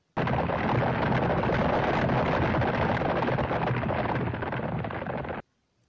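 A heavy truck drives over stones and crushes them, a loud, continuous crunching roar that cuts in abruptly and stops just as suddenly after about five seconds, evoking galloping horses.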